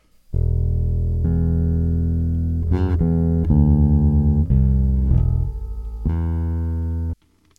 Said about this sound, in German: während meine Basslinie schon recht trocken ist. Ich drücke nochmal drauf, damit jeder hört, wie das also clean eingespielt ist.